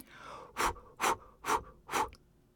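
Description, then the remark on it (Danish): Four strong, breathy puffs of air blown by a narrator into the microphone in an even, steady rhythm, each a short whooshing burst separated by brief pauses. “Og der stansede han op, og så pustede han,”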